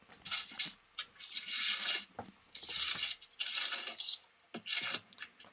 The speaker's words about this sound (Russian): Ох, тут кто-то там листает так громко.